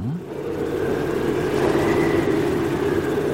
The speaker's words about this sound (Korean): 그래서 조금 서둘러 선풍기를 꺼냈어요. 아, 정말 인간이 만든 최고의 발명품 선풍기 아 시원하다 자 미풍 약풍 또제 거는 최신식이어서 강풍도 됩니다 자 강풍